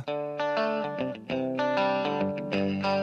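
A loud, distorted rock guitar riff plays with layered effects, strong sustained chords changing in a steady rhythm, with no voices over the music.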